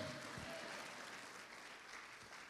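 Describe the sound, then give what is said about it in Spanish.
An audience claps together to praise God in a steady, dense burst of applause that fills the whole clip, bright and fairly loud, with faint voices mixed underneath. “Si la ha oído, déle palmas fuerte a ese Dios poderoso que nos habla.”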